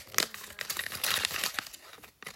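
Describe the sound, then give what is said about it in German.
Crisp crinkling of a 5-euro paper banknote, a rapid series of rustling crackles over a couple of seconds with a brief pause near the end before one last rustle. “Hier die kleine Belohnung, 5 Euro. Leute, hört ihr es?”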